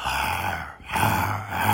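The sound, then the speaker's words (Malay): A voice imitates a lion's roar with two sustained, rasping growls, a brief dip between them, loud and throaty with a low rumbling base. “And the lion for, was from my room. And it went closer and closer and closer and closer and closer. And then mengaum tau macam like”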